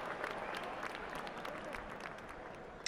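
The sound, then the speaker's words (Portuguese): A large crowd of football fans applauds in a dense, steady wash of clapping that holds at an even level for a few seconds, with no distinct voices rising above it. “A sensação é perfeita, do chute perfeito, com aqueles aplausos da torcida gritando seu nome, tudo.”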